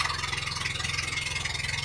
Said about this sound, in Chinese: 一直的突突声是海上它这个马达，蓝天白云，蓝蓝的大海，绿树荫，一切都太美好了。